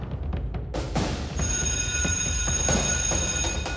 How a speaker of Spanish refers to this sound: sonó el timbre de la salida. Todos salieron como locos en patota.